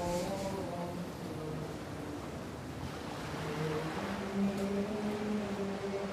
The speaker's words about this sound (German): Da sind Boote auf dem Wasser. Sie steuern direkt auf unser Kloster zu.